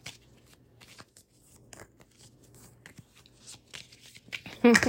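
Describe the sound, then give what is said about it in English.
Tarot cards being shuffled for a Capricorn reading, a run of quick papery riffles and soft flicks that grows louder and busier toward the end, with a low steady hum underneath. “I am shuffling for you, Capricorn.”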